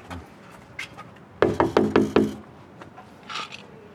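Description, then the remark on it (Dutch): Five quick, firm knocks on a front door in a steady, even rhythm, each a sharp woody rap, with quieter background noises before and after. “Oh, de bel doet het, eh, doet het niet. Dus wat dus we, doen? we gaan eventjes kloppen.”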